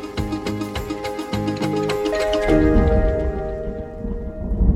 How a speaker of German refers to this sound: Heute regnet es, aber hier haben Sie einen wunderbaren Blick auf den Kristallo.